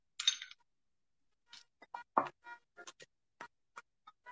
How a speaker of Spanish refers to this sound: Así que ahora estoy cambiando el hielo.